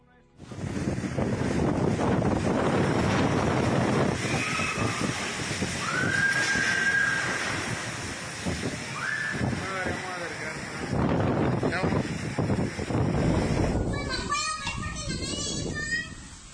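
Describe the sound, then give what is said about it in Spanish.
Strong, steady wind from a tropical storm striking Mazatlán, Sinaloa, with winds over 70 km/h, roars across the whole recording, buffeting the microphone, with indistinct voices and chatter half-buried beneath the rushing noise. “Y estos son los sonidos de la información, esa labor, la voz de Narda, la tormenta tropical que pegará de frente a Mazatlán, Sinaloa esta noche.”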